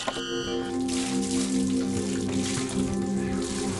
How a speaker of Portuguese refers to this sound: Tava passando aqui na rua e vi a senhora aqui lavando. está lavando roupa? Lavando roupa.